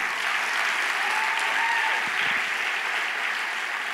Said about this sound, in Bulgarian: Ръкопляскай, ако ще го направиш. Хайде!